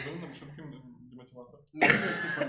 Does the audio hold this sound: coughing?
yes